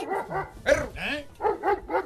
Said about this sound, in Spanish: ¡Perro! ¡Eso! ¡Eso! Tranquilo, sereno, moreno. era de un vato de San Luis ese perro, maestro.